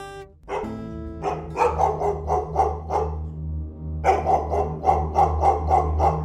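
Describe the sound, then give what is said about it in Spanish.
A dog that suddenly got up from lying at someone's feet barks loudly in two rapid volleys of sharp, repeated barks, separated by a brief pause, over a steady low hum. “se incorporó de repente y empezó a soltar unos ladridos atronadores.”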